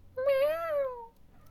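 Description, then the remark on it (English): A single drawn-out cat meow, clear, rising slightly then falling away over about a second, followed by faint background noise. “there's the cat. There's a cat.”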